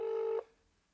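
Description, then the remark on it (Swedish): A single steady telephone ringback tone on an outgoing call to a mobile phone sounds for under half a second, then cuts off into quiet line hiss. It is clear and moderately loud, with no voices. “Nu ringer det.”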